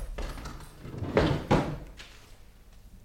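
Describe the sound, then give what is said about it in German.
The locked upper drawer of a desk is unlocked with a key and pulled open, heard as a couple of wooden knocks and scrapes in quick succession, followed by a fainter clunk. “Gut, dann wollen wir sie auch wieder dort hineintun. Und Die ist ja verschlossen.”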